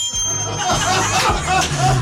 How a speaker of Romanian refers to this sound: Și a sunat clopotul reîntregirii